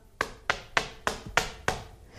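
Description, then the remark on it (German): Six sharp knocks on a wall in a quick, steady rhythm, moderately loud, with no talking in between. “Ich klopfe an der Wand, wo der ähm, hinter sitzt.”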